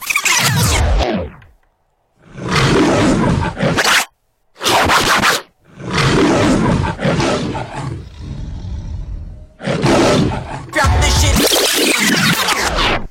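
A series of loud, rough lion roars, delivered as separate bursts with short silent gaps between them, harsh, with no one talking.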